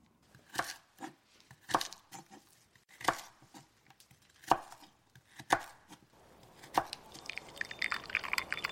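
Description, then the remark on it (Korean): A knife chops meat and vegetables on a board in a home kitchen as a mother prepares a meal, in steady, deliberate strokes about a second apart, crisp, with a busier crackling kitchen texture building toward the end. No one speaks. “보글보글 지글지글 이 부엌은 엄마가 고기와 채소를 썰고 밥솥에 뜸을 들이고 찌개를 끓여서 식사 준비를 하는 곳.”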